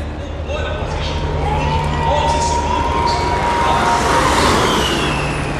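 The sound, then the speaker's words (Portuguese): A Formula E electric race car whizzes by at the first São Paulo E-Prix at the Sambódromo, with a rising then falling high-pitched whine, followed by another fainter pass, over a constant roar of crowd noise and murmuring voices. “Agora vai passar o Van Dorn.”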